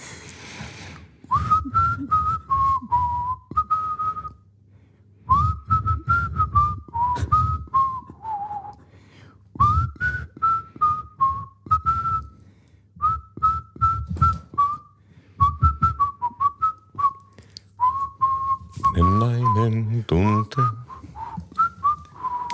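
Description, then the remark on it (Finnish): A person whistles a wandering song melody, phrasing it in several short runs separated by brief pauses, with a low background hum and a quick rising flourish near the end. “Nyt mä jo unohdin, että mikä, meidän pitäisi melkein katsoa ääninauhasta, että mikä, mitä mä yritin viheltää.”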